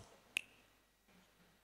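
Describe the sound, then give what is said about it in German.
A single sharp finger snap, crisp and bright with a short ringing tail, stands alone against faint background hiss before quiet murmuring stirs. “ich schnipp's einmal mit dem Finger und dann funktioniert die Sache.”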